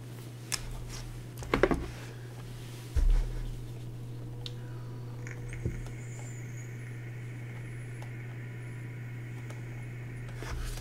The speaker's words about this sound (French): Oui, il ronronne le chat.